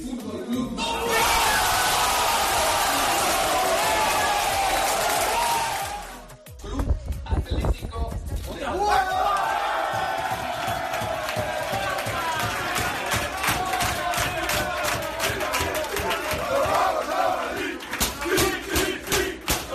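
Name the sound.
crowd cheering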